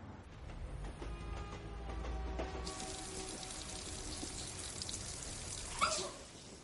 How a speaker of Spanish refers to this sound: Al amanecer, Katia se ducha en una habitación del Hotel Frenke.